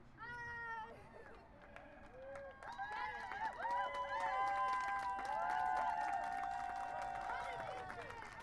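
A rally crowd cheers and applauds to welcome the next speaker, with overlapping high whoops and yells riding over steady clapping. The noise swells after the first couple of seconds and stays loud and sustained to the end.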